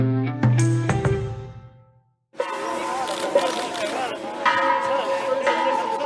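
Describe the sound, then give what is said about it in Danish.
Clanging, bell-like metallic rings with long ringing overtones, struck in a quick uneven cluster, then a brief silence before a busy outdoor wash of metal rattling and rolling with street noise, as a man rolls two metal gas cylinders along a street in Lima, Peru. “det du hører her lyder måske som øh, kirkeklokker eller noget i den retning, men det er faktisk en mand, der triller to ildbeholdere på gaden i Lima i Peru. De er lavet af en eller anden form for metal”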